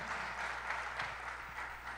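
An audience at a church service applauds the name of the Lord together, a steady, dense wash of many hands clapping that holds at an even level for the whole couple of seconds, with no voices standing out.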